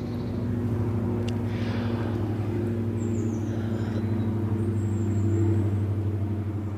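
A steady, humming engine drone of an airplane passing overhead fills the whole stretch, with a few faint, high calls of kites drifting above it, in a forest.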